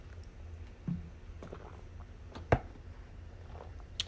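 Quiet sounds of someone taking a swig of water: a few soft gulps and swallows spread over several seconds, with one sharper click or knock partway through and no talking.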